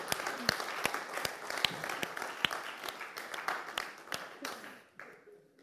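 An audience breaks into steady applause for a demonstration, many hands clapping together in a dense, moderately loud wash with a few sharper individual claps standing out, fading away near the end.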